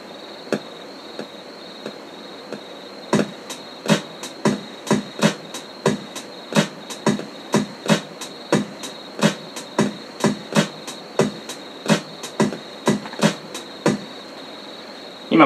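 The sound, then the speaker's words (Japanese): A programmed two-bar drum loop, copied to four bars, of sharp, clicky hits repeating steadily, left unquantized so the timing is slightly uneven from hit to hit, over a thin continuous high-pitched tone, with no voices. “これね、音がちょっとずれてるの分かりますきちんとしたさ、ドゥッツッタッツタッツタッタンじゃなくて、ちょっとこう、ドゥッツッタッツタツタツタみたいななんかこう、ちょっとずれがあるんですけど、まあ本当はこれ綺麗にね、全部リズム通りに打ち込むこともね、簡単なんですよ。”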